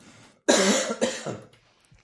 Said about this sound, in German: Ich muss gerade mal husten, Moment.